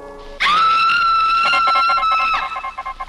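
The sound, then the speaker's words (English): A woman in a 1935 film scene lets out a single high, piercing scream that rises sharply at the start and holds steady for about two seconds, loud, with pulsing dramatic music underneath. “in 1935, I met Miss Elsa Lanchester in the scream heard around the world”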